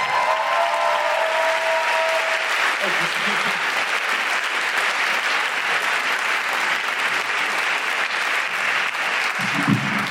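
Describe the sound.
Steady, loud applause from a crowd as Deborah Frances-White is introduced, a dense wash of clapping that holds for about ten seconds, with a brief vocal tone near the start and faint voices underneath.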